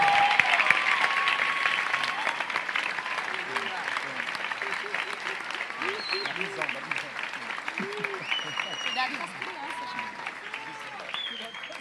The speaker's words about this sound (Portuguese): Em nome de Jesus, dê uma salva de palmas